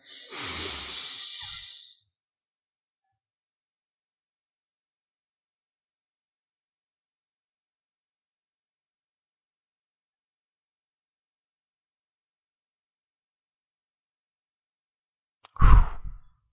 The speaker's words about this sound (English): so let's both sniff in the air